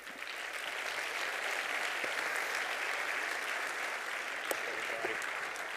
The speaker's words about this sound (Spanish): Así que un aplauso, por favor, para Axel.